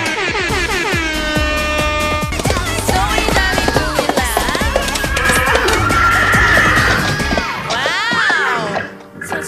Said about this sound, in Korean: 아니 코끼리는 왜 계속 우는 거예요?라고 해주셨는지 코끼리 왜 계속 우는 건가요?